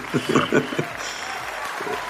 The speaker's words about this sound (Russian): Подложите, пожалуйста, аплодисменты звукорежиссера. Спасибо.